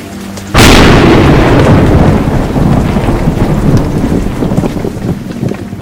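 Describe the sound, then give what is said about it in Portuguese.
A sudden, loud thunderclap cracks, then rolls into a long, rumbling decay under steady wind and rain noise, with no voices. “Após quase uma hora de caminhada, pouco antes deste estrondoso trovão, Brotor, Valerion e Nabaf avistam uma espécie de ilha flutuante por entre a gigante cortina de raios púrpura que desceu dos céus, na direção do deserto Anarolt, a oeste.”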